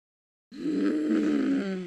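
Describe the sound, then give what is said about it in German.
A person imitates a disapproving, Marge Simpson-style cartoon groan: a single low, sustained humming grumble lasting over a second after a brief silence, with no spoken words. “Ich möchte, ich, also ich habe so ein Marge Simpson-Geräusch ja. die ganze Zeit so innerlich mitlaufen.”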